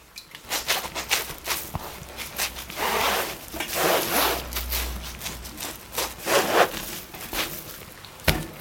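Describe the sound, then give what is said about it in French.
A wet, semi-transparent sheet of handmade paper being laid (couched) onto a protective cloth, heard as a run of soft, uneven rubbing and scraping strokes with no voices. “Là, on a une feuille qui n'a plus rien à voir avec celle qu'on a vue avant, qui, va être semi-transparente et que l'on va coucher euh, sur le, protège-lange.”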